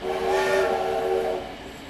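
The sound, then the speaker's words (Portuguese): A loud, sustained steam train whistle blows with a steady harmonic tone and airy hiss, holding for over a second before fading into lingering steam noise. No one speaks. “um trem completamente desgovernado segue a todo vapor em direção a cinco pessoas que estão presas no trem.”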